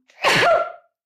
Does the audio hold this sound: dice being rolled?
no